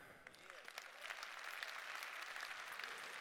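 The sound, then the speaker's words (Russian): Steady applause from a group of men, dense overlapping claps that build slightly and hold at a fairly loud level throughout, with no voices standing out. “Видимо, парни хлопают.”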